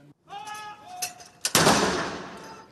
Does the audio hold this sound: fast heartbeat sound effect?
no